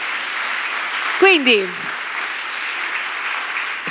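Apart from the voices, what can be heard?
audience applause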